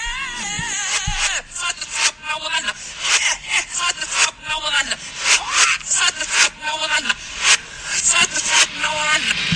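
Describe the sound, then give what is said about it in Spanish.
A song played in reverse: garbled, voice-like singing with warped sliding pitches over loud, swelling whooshes that build up and cut off abruptly in an uneven rhythm. “Versión original, al revés.”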